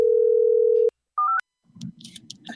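A steady telephone ringing tone hums over the line for under a second, followed by a short two-note electronic beep, then a voice starts talking faintly on the line.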